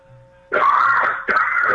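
Two harsh, raspy bursts of coughing and throat clearing, close and fairly loud, the second following right after the first, with a faint low hum underneath before they start.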